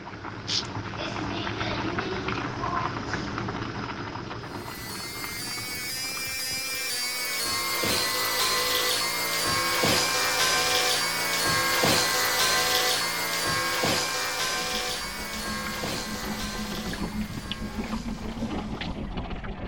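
An electric hair clipper buzzes steadily for the whole stretch, its motor hum shifting slightly as it works, with faint voices murmuring in the background.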